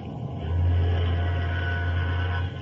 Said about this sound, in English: Sounds like an ocean liner, right enough. Yes, we're signaling her.